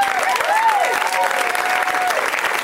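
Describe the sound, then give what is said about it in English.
A large audience at a live comedy show applauds steadily, dense clapping with a sustained, loud roar, while a faint tonal whistle or cheer rises and holds above it. “Let's hear it for”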